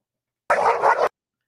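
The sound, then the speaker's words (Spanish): An excited dog named Keiko, outside, lets out a single drawn-out bark, about half a second long and loud, with a slight double-peaked rise in the middle and silence on either side. “Y aquí tenemos a Keiko que, que está aquí fuera, pero está excitado en plan, ey, ¿qué pasa aquí? ¿Qué pasa aquí?”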